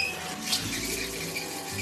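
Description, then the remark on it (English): Clean water runs steadily from a tap, a continuous hissing splash that holds fairly loud for the whole moment, with a faint clink near the start. “We've got clean water.”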